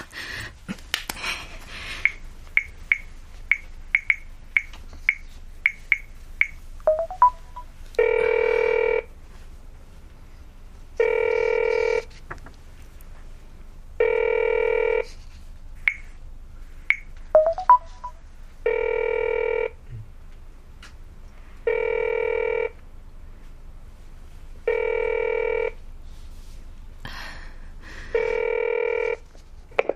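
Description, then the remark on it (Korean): A run of quick clicking dial tones gives way to a phone ringing in steady, evenly spaced bursts, about eight rings with short gaps, moderately loud and with no one talking. “이 전화번호가 분명 복순기일과 관련된 전화번호일 거야.”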